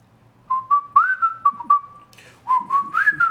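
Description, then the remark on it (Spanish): Someone whistles a short tune in two phrases, mimicking a bird's song with a clear, steady melody of held and gliding notes, fairly loud, with a brief pause between phrases. “Que entre las 11 de la mañana y las 2, 3 de la tarde, acá en mi casa, se escucha un pájaro que silba.”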